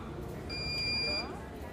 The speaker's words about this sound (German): Ein leises Summen und Brummen der Maschinen durchzieht den Raum, begleitet vom gelegentlichen Piepsen, wenn eine Maschine den Reinigungsvorgang abgeschlossen hat.